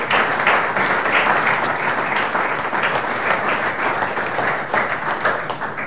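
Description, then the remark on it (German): Steady applause from an audience thanking four presenters, many hands clapping in a dense, continuous wash of sound that stays loud and even for several seconds. “Vielleicht äh, einen kurzen Applaus schon mal dafür.”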